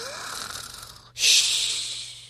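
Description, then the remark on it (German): A person imitates loud snoring: a rasping, drawn-in breath followed by a louder, hissing exhale, with no talking. “wir können auch schnarchen”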